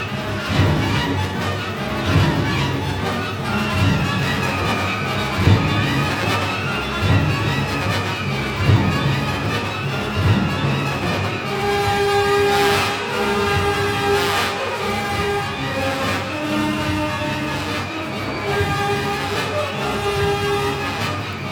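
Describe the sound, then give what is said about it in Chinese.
Loud, dense orchestral music from Mosolov's Soviet futurist piece 'Iron Foundry', depicting steel mill machinery at work: a relentless pounding rhythm and churning low clatter under a shrill, sustained brass line, with sharp metallic accents bursting in partway through. “它就是在非常具象的描写一个炼钢厂里面的机器的运作。”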